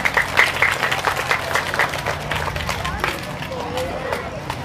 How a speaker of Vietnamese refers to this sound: các cháu hãy dành một tràng vỗ tay thật lớn và thật dài để cam kết